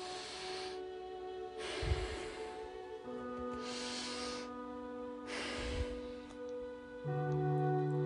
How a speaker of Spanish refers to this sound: Respiración torácica.